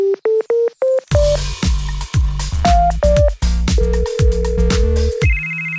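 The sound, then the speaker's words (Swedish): A short series of rising electronic keypad beeps, then a loud burst of rapid, melodic ringtone chirps and tones, ending with a long steady tone, as a phone call is placed to a singer; clear with no one speaking. “Och inför den konserten så ringde jag upp honom och ja, som brukligt så kom vi ju då in på ämnet hundar.”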